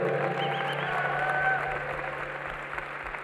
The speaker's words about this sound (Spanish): Amén, dale fuerte ese aplauso al Rey.